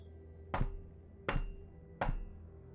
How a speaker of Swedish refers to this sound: Vem är det? Tystnad. Få är vad du får till svar. Vem är det som knackar på dörren?